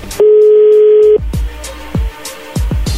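A telephone dial tone hums steadily for about a second, then cuts to a quick, uneven string of around eight short dialing beeps and clicks as someone dials from another telephone. No one speaks.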